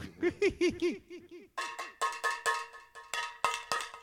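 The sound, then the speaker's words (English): A cowbell struck with a spoon in a quick, steady series of about fifteen loud hits, the first half duller and hollow, the second half brighter with a ringing metallic tone. “But this end of the of the meaning spoon seems to be better, you know.”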